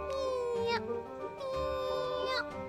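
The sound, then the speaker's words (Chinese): A cat meows twice, each a drawn-out, tonal call that rises in pitch toward its end, with a short pause between the two. The meows are clear and fairly loud. “接着，有一只小猫咪拿了一把银斧头和一只银色的锯子来给汉斯，并对着他说：“ 喵喵，主人说明天你开始帮忙砍柴吧。”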